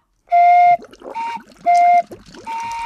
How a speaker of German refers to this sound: Dann blubber ich mal.